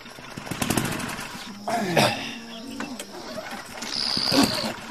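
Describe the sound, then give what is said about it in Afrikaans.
A hand-cranked engine sputters and chugs as someone turns the crank handle to start it, its uneven mechanical pulses rising and falling in pitch, with voices briefly heard over the running machinery. “Nou ja, sy is jy reg om die slinger te draai,”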